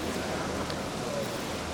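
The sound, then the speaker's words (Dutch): A motorboat passing beneath the Ponte del Teatro bridge, its engine and churning water merging into a steady, loud, rushing roar that fills the whole moment without pause. “Komt een motorboot onder ons varen?”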